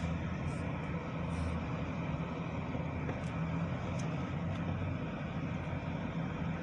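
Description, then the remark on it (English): A Lamborghini sports car engine drones steadily as the car drives along, a constant, fairly loud rumble with a broad roar of road noise that holds unchanged throughout, with no one speaking. “Nice car. That's a Lamborghini.”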